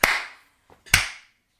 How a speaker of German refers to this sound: Boah, haben wir ein richtig krasses ja. Delay. Und ich habe gerade synchron mit dir geklatscht.